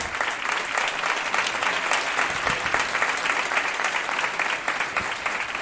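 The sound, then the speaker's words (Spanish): An audience, with visitors from other countries asked to stand and applaud, claps steadily throughout, a dense, even wash of many hands with a few sharper individual claps standing out, loud and sustained with no pauses and no one talking over it. “Y de los otros países que vienen, no sé, eh, se pongan de pie también para aplaudir los de otros países que vengan.”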